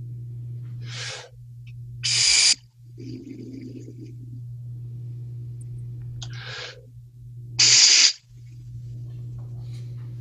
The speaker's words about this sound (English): So we'll take the the breath in and we'll try to focus if you if, I don't know if you can see this but in the middle of the mouthpiece there's a hole you want us to focus the air right through the center of that hole in the mouthpiece